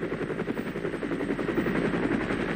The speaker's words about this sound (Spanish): Ven a los helicópteros americanos acercándose.